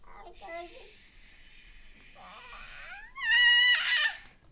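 A baby babbles and fusses, with a few wavering vocal sounds that rise into a louder, whiny cry near the end before trailing off.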